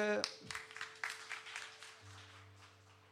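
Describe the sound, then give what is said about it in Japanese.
An audience applauds in thanks, a dense, steady patter of many hands clapping at moderate loudness for a few seconds, with a low sustained tone joining underneath toward the end. “ミルにもですね感謝の拍手”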